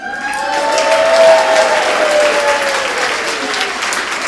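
A crowd claps steadily for a speaker taking a red carpet walk with an Emmy, a dense crackling wash of many hands that swells a little, then holds at a fairly loud level throughout, with faint whoops or vocal tones threaded underneath.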